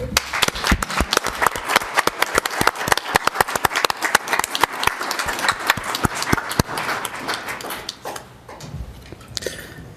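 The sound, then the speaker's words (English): A round of applause at a city council meeting for the Wellspring community, dense sharp claps rattling steadily for several seconds, then thinning out and fading toward the end. “Yes, and I'd like to give the uh, Wellspring community a round of applause.”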